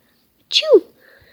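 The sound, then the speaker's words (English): A voice imitates a single sneeze, a short, sharp breathy burst sliding into a falling 'choo', fairly loud, followed by near silence. “They are eager to see her today and find out what is hap- uh, what is making her sneeze.”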